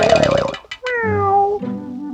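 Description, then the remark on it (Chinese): A human voice imitates a cat, giving a drawn-out, wavering meow with a falling pitch, preceded by a brief burst of busier voiced sound. “鸟公醒了，喵。”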